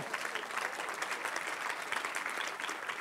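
An audience claps steadily for the team, a dense wash of many hands with no clear individual claps, holding an even, moderately loud level throughout with no voices standing out.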